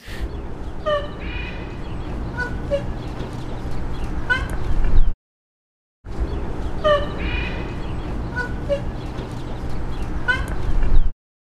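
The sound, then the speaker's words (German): A black rhinoceros bull calls in mating mood with a string of high, squeaky whistles and whines over a steady low rumble. The same five-second passage plays twice after a brief silence. “Das war nicht so ein kleines Nashorn, das war ein Bulle in Paarungsstimmung.”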